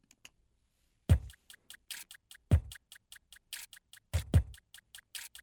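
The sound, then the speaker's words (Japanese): Crisp shishi-odoshi bamboo knocks tap out a fast, even sixteenth-note pattern, layered over a few deep, booming thumps of vegetables being chopped, used like a kick drum in a piece of music. Loud, no voices. “でここにですね、えー、ジャンダラーさんの獅子落としの音が、えーと、16ビートで入ってくるんですけど。”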